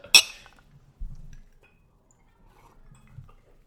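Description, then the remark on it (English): A single bright clink of glasses touching in a toast, ringing briefly, followed by a soft low thud as they are set down and faint handling noises. “cheers to 99 Cheers. cheers.”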